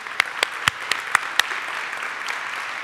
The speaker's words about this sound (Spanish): Vamos a darle un fuerte aplauso a Comunidad de Fe en México.